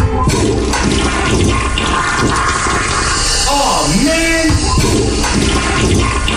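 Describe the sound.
A toilet flushes loudly up close, a rushing, gurgling roar that briefly drops out before a second flush surges in; a man exclaims briefly partway through.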